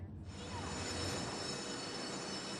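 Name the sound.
train on the rails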